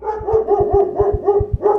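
dog barking at night

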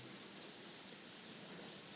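heavy rain pouring down

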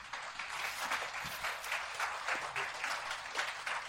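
audience applause

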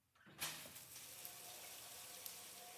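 shower water running

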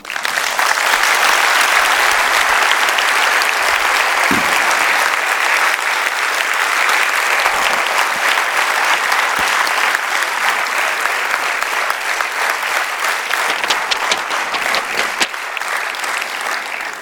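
audience applause

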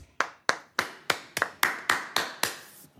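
hand clapping

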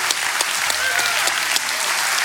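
audience clapping hands

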